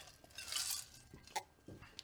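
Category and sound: household object, glasses clinking together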